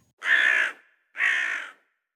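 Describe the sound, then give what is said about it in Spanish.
A potoo bird gives two harsh, drawn-out calls at night in the La Isla neighbourhood, each about half a second long with a short pause between them. The calls are fairly loud, with no talking or other sound. “y ha escuchado, incluso, el graznido estremecedor del pájaro pollo.”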